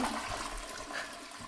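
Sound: toilet flushing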